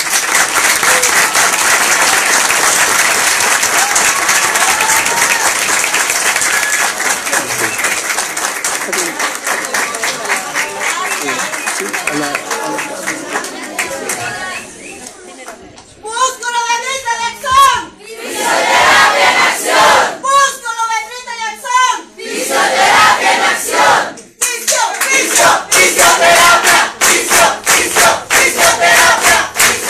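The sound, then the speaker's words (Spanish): Loud, sustained applause from a large audience for the minister, at an event of the College of Physiotherapy and Kinesiology of Bolivia, fills the first half, then fades into cheering and shouting voices with bursts of clapping continuing underneath. “Gracias, señora ministra, y por favor quiero pedirles a, a todos un fuerte aplauso para la ministra.”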